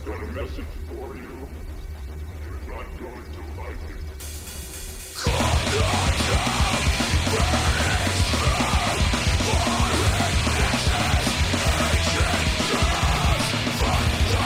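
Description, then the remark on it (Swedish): A hardcore metal song with screamed vocals: a thinner, quieter intro for about five seconds, then a dense, loud wall of distorted guitars and drums, the harsh screaming sitting low in the mix. “Han skriker med låg volym.”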